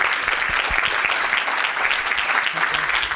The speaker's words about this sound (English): Uh, really, a great round of applause. You guys knocked it out of the park.